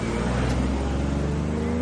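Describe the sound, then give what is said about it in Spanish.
A car drives away with a family inside, its engine humming steadily with a low, continuous rumble and faint tire noise, holding at a fairly even loudness for a couple of seconds, with no voices. “El coche se aleja.”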